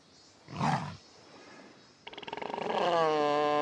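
A short, breathy rumble, a brief pause, then a series of rapid throaty pulses building into a loud, sustained lion roar, with no talking.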